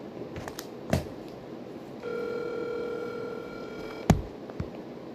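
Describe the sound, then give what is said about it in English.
A phone line rings once with a steady, buzzy ringback tone lasting over a second, heard as if through a handset, framed by a couple of sharp clicks and faint background noise. “Make sure he picks up.”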